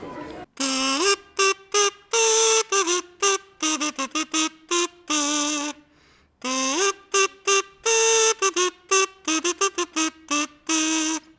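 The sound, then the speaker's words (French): A kazoo, a small instrument about 10 cm long that the player sings into, transforming the voice, buzzes out a bouncy tune in short, staccato notes with occasional sliding pitches, played fairly loud in two phrases separated by a brief pause. “ça, c'est un kazoo, qui est un petit instrument dans lequel je chante et euh, qui est tout petit, qui fait 10 cm et qui fait ce son un peu étrange, qui transforme la voix en fait.”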